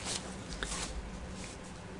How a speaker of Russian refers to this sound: Перелистываем страницу. У меня даже две. С комментариями здесь.